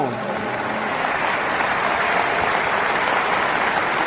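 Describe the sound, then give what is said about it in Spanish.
A crowd claps loudly and steadily for a priest marking 63 years of priesthood, dense overlapping hand claps forming a continuous wash of sound for the whole few seconds, with a faint voice trailing off at the very start. “Denle un fuerte aplauso porque muy posiblemente está ahí conectado.”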